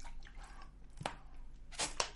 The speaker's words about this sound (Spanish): Yo no le doy sorbo al café, yo le doy un traguito a esto.